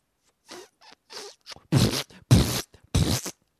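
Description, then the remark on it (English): A voice imitates a queef: a few soft, breathy puffs build into three louder, raspy sputtering bursts, alone with no talking. “I knew a girl that could queef just by rocking back and forth”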